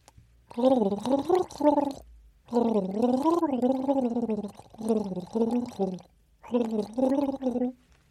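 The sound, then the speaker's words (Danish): Someone gargles water while humming the melody of a 1998 hit song, the bubbling voice rising and falling in four loud phrases separated by short pauses. “Og så den her sang, som jeg prøver at nynne her. Og gurle.”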